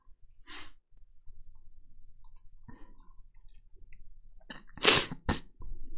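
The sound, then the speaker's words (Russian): A man with a runny nose blows his nose: a short snorting burst, a quiet pause with faint rustling, then a louder forceful double blast of air through the nose near the end. No talking. “Это я на самом деле просто высморкался.”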